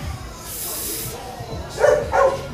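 A dog gives two short, sharp barks in quick succession, moderately loud, following a brief hissing sound.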